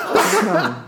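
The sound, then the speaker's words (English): A single loud sneeze: a sharp burst of breathy, voiced noise lasting under a second, with a faint trailing sound at the end. “Bless you, son.”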